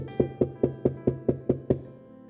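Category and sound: household object, knocking on a door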